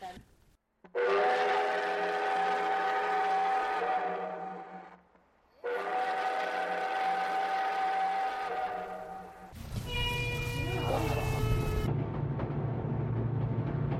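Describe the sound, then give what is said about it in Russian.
The 9:30 train departs with two long, loud whistle blasts, then a heavy low rumble and mechanical clatter build as it begins to move. “네, 이제 출발했는데요. 기차가 막 움직이고 있어요.”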